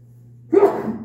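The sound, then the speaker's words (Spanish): A single sneeze bursts out abruptly after half a second of near silence with a low steady hum, sharp at onset and trailing off in a breathy rush. “Salud.”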